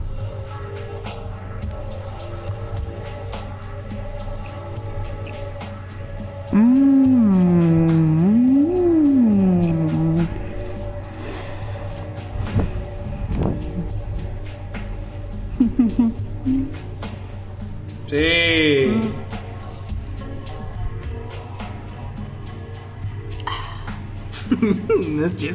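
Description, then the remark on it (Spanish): Loud, wet chewing and mouth smacking as someone eats a burger, broken up by heavy, voiced breaths and drawn-out sighs. “Bueno, ya procede a comer, dos ¿no?”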